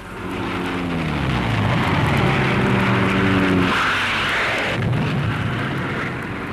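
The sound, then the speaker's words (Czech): A loud, continuous roar of Typhoon fighter-bomber engines with droning tones that slide downward as the planes pass, under a dense noisy rush of rockets whooshing as they attack an assembly area of German tanks. No one speaks. “Uslyšíte nyní, jak Rockfun letí a jak útočí na seřadiště německých tanků. Mimo hučení strojů uslyšíte též svištění raket.”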